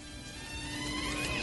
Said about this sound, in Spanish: No, perdimos, perdimos la comunicación. Sí, perdimos la comunicación.